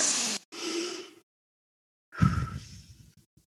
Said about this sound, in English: Okay. Deep breathing. Okay. Now let's just take a couple of deep breaths together.